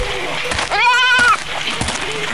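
A goat bleats loudly, one long wavering cry in the middle, with fainter bleats and a busy background of other animal sounds around it, from a flock of goats belonging to shepherds.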